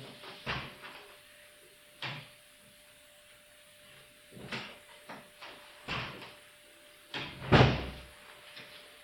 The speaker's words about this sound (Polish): Teraz może otworzę na chwilę drzwi i zamknę.